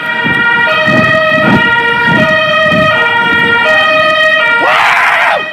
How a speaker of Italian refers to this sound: Ma questa è polizia, ma non è più municipale, cioè si sente proprio stanno Dice che è polizia. polizia. Boh, sembra una sirena diversa, cioè sono intervenute pure altre pattuglie